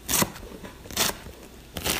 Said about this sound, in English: What's that noise? asked James. I think Danica is chopping something up, said Danica's father.